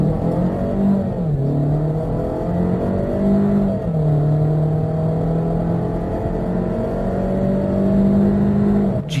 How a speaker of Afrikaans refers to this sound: Die 1.4 turbo aangejaagde masjien stoot 125 kW en 250 Nm uit, heeltemal voldoende teen enige spoed.